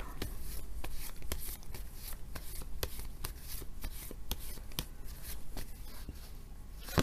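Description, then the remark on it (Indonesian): Tarot cards are shuffled and drawn for a tarot reading for Pisces, a steady stream of crisp flicks and soft papery rubs, with no one speaking. “Kita bacakan sekarang kartu tarotnya ya.”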